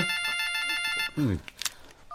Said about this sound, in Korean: 이 인간은 왜 자꾸 전화질이야? 누군데요? 아까부터 계속 울리는 것 같은데.